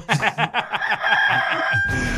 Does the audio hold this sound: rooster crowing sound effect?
yes